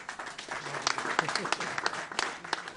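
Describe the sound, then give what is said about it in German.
A crowd applauds steadily at the opening of the Luftiger Grat alpine premium hiking trail on the Hochgrat near Oberstaufen, Germany, many hands clapping in a dense, continuous patter with sharper individual claps standing out, moderately loud. “Applaus”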